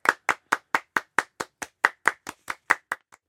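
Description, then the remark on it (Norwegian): Brisk, even hand clapping by radio hosts in an NRK P1 studio, roughly fifteen sharp claps at a steady rhythm, tapering off with a couple of softer claps at the end. No one speaks. “Ja, vi, var, takk vi, må få lov til å applaudere.”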